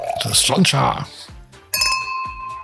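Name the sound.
glasses clinking together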